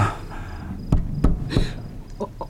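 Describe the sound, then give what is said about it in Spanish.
Three loud, sharp knocks on the south door, evenly spaced about a third of a second apart, over a faint ambient hum with softer tapping noises trailing off afterward. “Oigo llamar en la puerta del sur.”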